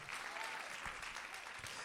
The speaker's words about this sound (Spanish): Dale un aplauso fuerte. Vamos, dale un aplauso fuerte.